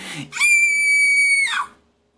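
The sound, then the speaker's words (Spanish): A voice imitates a teacher's shrill, startled scream: one loud, high-pitched shriek held steadily for about a second, then cut off abruptly, with no talking over it. “y grita de una manera que llama mucho la atención porque dice, oye joven, ¿qué estás haciendo?”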